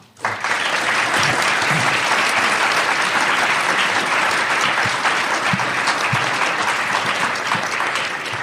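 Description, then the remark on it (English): Sustained applause from a live audience thanking a panel at a live recording of The Naked Scientists in Chicago at the AAAS, a dense wash of clapping that starts abruptly and stays loud and steady throughout, with no talking over it. “Please join me in thanking our panel”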